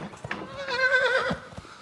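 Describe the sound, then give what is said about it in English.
A horse lets out a single short, wavering whinny, with a few soft thuds and shuffling noises before and after it. “Marquis the horse is suspicious, unpredictable, intimidating, and angry.”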